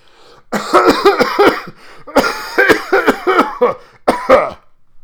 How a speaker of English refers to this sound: How long have you had that cough?